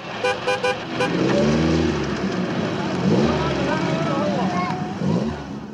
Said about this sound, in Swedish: Av färjan rullar en vit Lotus Esprit med högvarvig motor.